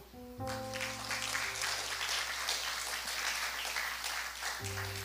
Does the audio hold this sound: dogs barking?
no